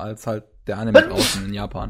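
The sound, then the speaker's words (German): A single sharp sneeze bursts out in the middle of ongoing conversation, fairly loud, with people talking before and after it. “Gesundheit. Das passiert auch nicht so häufig, Gesundheit.”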